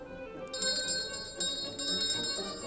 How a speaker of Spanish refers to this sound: Ya suena el almiré de las madres.